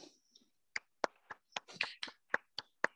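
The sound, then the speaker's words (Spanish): Brief applause from what sounds like one or two people, greeting a guest of the evening: about nine sharp hand claps in a loose, fairly steady rhythm, with no talking. “Este, un saludo para, un saludo y un aplauso para nuestro compita,”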